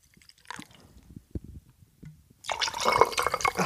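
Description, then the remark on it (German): A few soft clicks and bottle-handling sounds, then tonic water pours loudly, a bright fizzing, bubbling rush that continues steadily to the end. “Jetzt noch der, das Tonic.”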